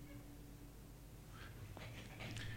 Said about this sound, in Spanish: eso es un perro que se escucha ladrar. Pero ¿dónde está el perro? Es un perro volador, boludo, está en el noveno piso. En el edificio de enfrente.